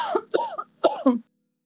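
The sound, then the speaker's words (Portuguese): A witch coughs: four quick, raspy coughs come in two close pairs, loud, with a voiced, somewhat theatrical quality, then silence. “Nossa, a bruxa começou a tossir.”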